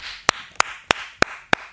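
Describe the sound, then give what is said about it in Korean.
Five sharp hand claps in a steady, even rhythm, each a crisp snap, heard alone over a faint background hiss with no talking. “오늘 기깔나게 낮잠을 잤습니다. 박수!”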